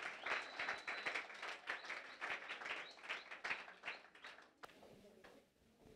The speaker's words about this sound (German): Wir können ihn mit einem herzlichen Applaus willkommen heißen.